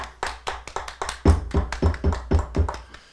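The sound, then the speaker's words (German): One person claps alone, beginning with a quick run of light, uneven claps, then settling into slower, louder, evenly spaced claps until the end. No voices. “Ich mach mir also, einen also. Solo-Applaus hier.”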